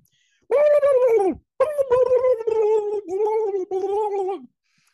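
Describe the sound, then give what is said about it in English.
A person imitates a turkey gobbling, a loud warbling, throaty burst followed by several more rapid gargling gobbles over about four seconds. “You heard it here from the turkey.”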